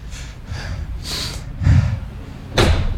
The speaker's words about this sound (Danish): Døren smækker!